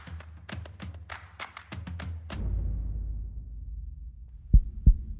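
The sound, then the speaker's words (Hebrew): A racing heartbeat sound effect, standing for a pulse at 200 as a footballer steps up to take a penalty kick: a rapid flurry of sharp thumps gives way to a low, swelling rumble, then two heavy, deep beats land close together near the end. No talking. “אני ניגש לבעוט את הבעיטה, דופק שלי על 200”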